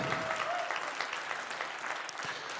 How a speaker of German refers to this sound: Wie findet ihr die? Ist doch richtig cool, oder? Gebt ihr nochmal Applaus.